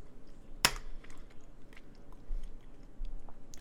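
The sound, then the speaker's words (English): Quiet chewing of a soft pineapple Hi-Chew candy: a sharp click near the start, then scattered soft, wet mouth smacks and squishes, with no talking. “Also, side note, thank you for our, our sponsor, Hi Chew. It's very good pineapple.”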